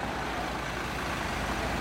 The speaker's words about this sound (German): Bus kommt.